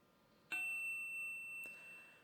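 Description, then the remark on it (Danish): A bright text-message notification chime rings out suddenly for an SMS from an unknown sender, its clear tones lingering and slowly fading, with a brief second tap partway through. No one speaks. “Så der er bare en sms uden afsender, hvor der står, øh, hvad har du været mest stolt over at få ført igennem i Folketinget?”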